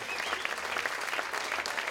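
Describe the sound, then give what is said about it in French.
Steady, dense applause from an audience at a filmed show, given for the opening acts, a continuous crackle of many hands clapping at an even loudness throughout, with no voices standing out. “on peut-tu donner une main d'applaudissement à Réal et Nick en première partie?”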